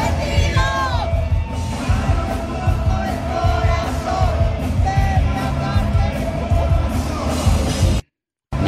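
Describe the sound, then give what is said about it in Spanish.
A large audience at a Mexican regional music performance in Houston cheers and yells in a loud, continuous roar of overlapping shouts and whoops, with a few high squeals rising above the crowd before it cuts off abruptly. “Y escuchemos cómo fue la reacción del auditorio.”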